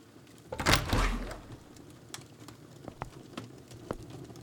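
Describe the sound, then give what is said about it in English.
Doors creak open in one short, swelling rush of sound that fades within a second, followed by a few faint scattered clicks and ticks. “The doors creaked open.”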